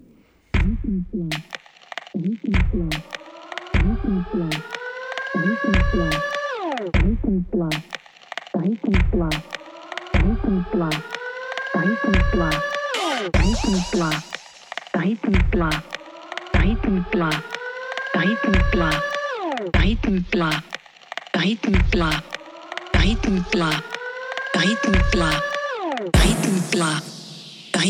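A loud electronic remix track released in 2019 plays, with a steady pounding kick drum and repeating rising sweeps, probably a chopped vocal phrase looped over the beat, building to a brighter burst near the end.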